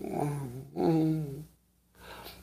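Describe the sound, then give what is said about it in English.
A dog growls in two drawn-out, throaty rumbles separated by a brief pause, then a quieter stretch follows. No one speaks. “Oh, my puppy dog. My puppy dog is.”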